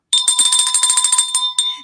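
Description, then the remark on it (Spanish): A bright electronic notification bell chime, the bell to click on a YouTube channel, rings out in a rapid, fluttering burst of high metallic tones over steady pitched partials, cutting briefly before a final short ding. No one talks over it. “Denle clic a mi campanita, denle like, comenten, compartan y lo más importante, suscríbanse a mi canal de YouTube.”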